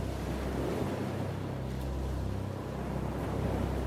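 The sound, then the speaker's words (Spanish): Water sloshes and splashes steadily against a boat's hull at sea at night, waves moving along the surface, with a constant low rumble of wind and engine underneath; no voices, just a continuous wash of noise. “Solo se escuchaban el ruido de las olas al moverse por la superficie y chocar contra el casco del barco.”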